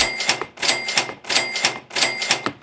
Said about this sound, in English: Yes, you heard me. I ring the register on that one.